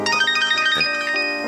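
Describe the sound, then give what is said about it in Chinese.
A phone rings with a loud, steady electronic ringtone, its bright tones shifting to new notes a couple of times, with no voices present. “接电话了，我进去喝茶啊。”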